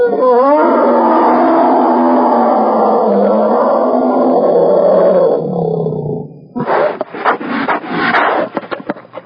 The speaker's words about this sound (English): The bear roared and snapped its huge jaws.